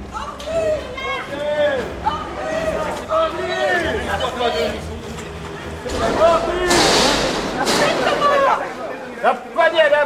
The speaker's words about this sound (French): Le jeune homme est accueilli par les huées des badauds venus en nombre.